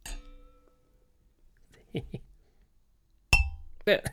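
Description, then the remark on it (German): Wine glasses clink together in a toast, a bright ringing chime that fades slowly, then a second sharper clink. Brief voices are heard in between and just after. “Ja, machen wir das. Dann mhm. Prost! Prost.”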